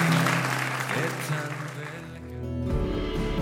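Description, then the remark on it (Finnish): A church audience of Suhe seurakunta claps steadily and loudly for Jesus, a dense wash of many hands, with low sustained musical tones underneath that shift partway through. “Annetaan isot aplodit Jeesukselle ja lauletaan Jumalalle.”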